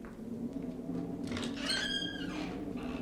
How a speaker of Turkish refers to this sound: Dur bekle. Açıyorum kapıyı.